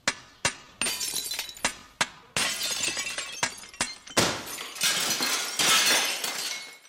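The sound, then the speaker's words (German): A hammer strikes water-filled drinking glasses, played as the opening of the Andante from Mozart's Piano Concerto No. 21, in a rapid, uneven series of sharp, bright hits, and the later blows turn into longer crashing bursts of shattering glass. No one speaks. “Aha, aha, also gut, wenn's sein muss, dann nehme ich halt die blöden Gläser, so, und dann tue ich da Wasser rein. So, und dann spiele ich drauf, und zwar mit einem Hammer.”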